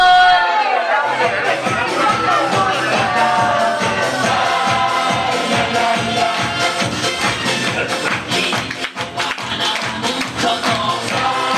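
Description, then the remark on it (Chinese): A large audience at a speech raises both hands and cheers and shouts loudly and continuously for about twelve seconds, a dense roar of many voices mixed with what sounds like upbeat music playing underneath. “然后从现在开始，从此时此刻开始，愿意为自己的家人，愿意为自己的团队，愿愿意为我们伟大的祖国而做出伟大的决定的，请举双手加欢呼声。”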